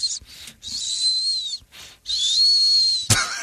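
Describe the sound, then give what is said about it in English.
A voice imitates the high, thin squeak of a microphone mount being moved: a few short squeals and two long, wavering ones, fairly loud, ending with a sharp click. “Yeah, with, it used to squeak like.”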